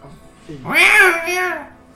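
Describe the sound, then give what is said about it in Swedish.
Two drawn-out, whiny meows from a group of six or seven skinny, hungry cats begging for food follow each other closely, the first rising and falling in pitch, the second softer and trailing off. Fairly loud, with no talk over them. “En 6-7 magra katter flyger nästan på er.”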